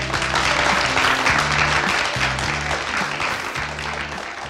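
Steady, dense audience applause on a show, welcoming a guest from the Culinary Institute of Barcelona: a loud wash of many hands clapping, with a low tonal music bed playing underneath in short repeating phrases.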